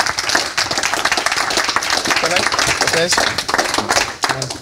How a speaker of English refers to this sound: So, can I get a big round of applause